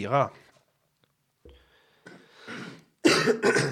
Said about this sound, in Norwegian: Host og hark, skal vi se.